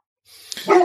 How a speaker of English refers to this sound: I would say that's my dog. Hey, Dad's trying to record.